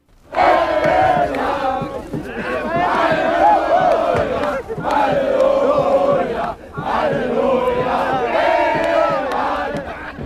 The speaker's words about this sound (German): Ja, Halleluja, D-Mark um 0 Uhr am Alexanderplatz. Zehntausende begrüßen jubelnd die deutsche Mark. Mit sechs Silvesterraketen und Hubkonzerten wird gefeiert und überall herrscht wirklich ausgelassene Stimmung.